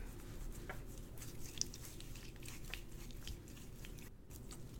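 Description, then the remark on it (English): Wet, rhythmic squishing strokes of a man masturbating repeat steadily at close range, a soft moist slapping texture over a low constant rumble, with no voices. “Dude, it's so weird being able to hear you wanking your meat like that.”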